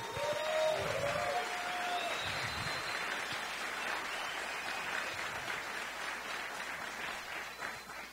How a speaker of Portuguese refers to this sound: Uma salva de palmas para os dois, inclusive.